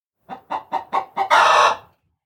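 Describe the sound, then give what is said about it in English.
A hen, Hela, the farmer's favorite, clucks: five quick, evenly spaced clucks, then a longer, louder drawn-out squawk that fades away, with no other sounds. “But hey, Hela the hen was the farmer's favorite.”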